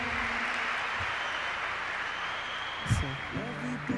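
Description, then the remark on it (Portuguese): Dense, steady applause washed in heavy reverb. It holds evenly for about four seconds, with a brief voice or tone surfacing near the end. “Palmas de reverb.”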